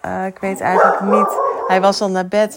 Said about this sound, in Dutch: Eh, sorry voor de hond die nu aangeblaft komt.